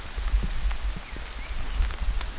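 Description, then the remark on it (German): A small brook down below rushes steadily, a continuous watery hiss over a low rumble with scattered faint splashing ticks. No one speaks. “Man hört sogar diesen kleinen Bach da unten rauschen.”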